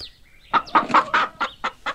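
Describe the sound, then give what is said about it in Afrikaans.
Chickens cluck in a quick series of short bursts, about seven clucks in a row with brief gaps, and a faint higher squawk just before them, as a young woman feeds chickens and geese in her yard. “'n Een van haar reis af sien sy 'n jong vrou in haar erf staan, besig om hoenders en ganse te voer.”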